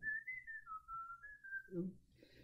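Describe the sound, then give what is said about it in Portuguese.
Someone whistles a short melody, a clear single tone stepping between a few pitches, with faint background murmur and a brief voice or noise near the end. “começava a suviar as melodias.”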